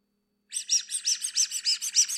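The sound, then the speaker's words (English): A squeaky toy named Veronica, scuffed up with spooky eyes, is squeezed over and over, giving a quick, even run of about a dozen shrill, chirpy squeaks that begin after a brief silence. No one speaks. “I'm gonna get her squeaky real quick”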